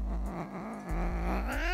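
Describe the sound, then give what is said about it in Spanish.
A cat lets out a loud, drawn-out growling yowl, its tone wavering and then rising sharply at the end, with no voices around it. “¿Quién le enseñó a ese pájaro ahorita que estaba ahí, De que si no se pellizca ese gato se lo va a comer,”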